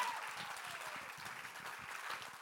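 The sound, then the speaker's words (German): An audience claps steadily, a dense wash of many hands that stays at an even, fairly soft level for the whole stretch, with no voices standing out. “Gebt ihnen mal einen Applaus, das ist wirklich sensationell”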